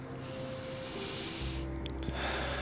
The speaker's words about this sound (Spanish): Te invito a que tomes un momento de pausa en tu vida, en este momento, hagas una respiración profunda.